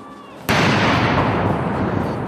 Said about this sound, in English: Britain's four day Platinum Jubilee for Queen Elizabeth kicked off on Thursday with a birthday parade. 1,400 soldiers, decked out in their finest red tunics, marched in precision drills for their queen. After the parade came the 82 gun salute,